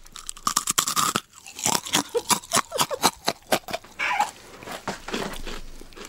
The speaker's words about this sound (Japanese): またね海苔が、うん、海苔のパリパリも